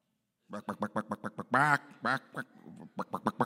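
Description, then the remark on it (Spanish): A person imitates honking geese with a rapid run of short nasal honks, then two longer drawn-out calls, a brief pause, and a few more quick honks, fairly loud. “¿Cómo hacen los gansos? Algo parecido a los patos.”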